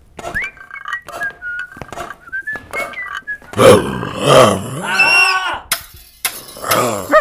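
The Lion from The Wizard of Oz roars loudly, a rough, growling burst that swells and then trails off, following a stretch of cheerful tonal whistling; no one talks.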